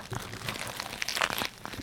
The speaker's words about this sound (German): Und, und könnt ihr euch vorstellen, wie unglaublich saftig dieser Döner ist, in den ich jetzt gerade ganz nah am Mikrofon reinbeiße.